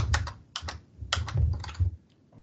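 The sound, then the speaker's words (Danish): Keys clatter on a computer keyboard in quick, uneven bursts, a few clusters of crisp taps with brief pauses between, no voices present. Someone is typing an association's financial figures, such as result and equity, into an application. “Øh, man taster en egenkapital.”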